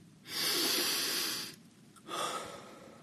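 A long, slow breath is let out audibly through the mouth as a relaxing breathing exercise, followed after a short pause by a second, shorter breath, clear with no talking.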